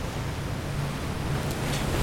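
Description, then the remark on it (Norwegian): A steady, rushing roar of Pacific Ocean waves striking jagged cliffs again and again, a dense wash of water noise with no pauses or distinct individual crashes, even in loudness throughout. No one speaks. “titter ned på en bølge som slår og slår mot forrevne klipper i Stillehavet.”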